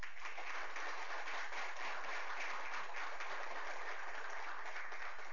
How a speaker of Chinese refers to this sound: 我们再次以热烈的掌声呢，向这个两位表示深沉的谢。